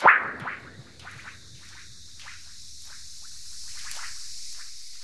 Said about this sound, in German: Das heißt, was man hört als allererstes ist das starke, den Einsatz der Wellen vom Sumatra-Beben und danach jedes peitschenartige Geräusch ist letztendlich ein Nachbeben. Und selbst diese Nachbeben in Sumatra waren gigantische Erdbeben.